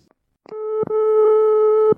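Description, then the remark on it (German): A steady, buzzing telephone line tone holds for over a second, opened and closed by sharp handset clicks, fairly loud with no voices. “Einen Tag später telefonieren sie erneut.”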